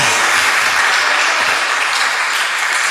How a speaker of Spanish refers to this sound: hádele ah, un aplauso al Rey de la Gloria.